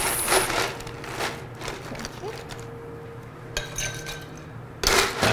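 Ice dropped into a cocktail glass holding straight bourbon and gingerbread simple syrup: a few bright clinks at scattered moments, one leaving a short glassy ring, over a steady low background hum.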